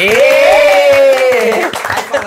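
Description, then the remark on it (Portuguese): Audience applause with a steady patter of clapping, mixed with loud sustained whooping or cheering voices riding over it, fading somewhat toward the end. “Então, uma salva de palmas, por favor!”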